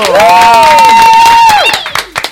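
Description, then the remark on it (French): A studio crowd applauds and cheers loudly as a guest is welcomed onto a show, with dense clapping under whooping voices and a sustained high cheer that fades out, leaving a few scattered claps at the end. “Un ton d'applaudissements”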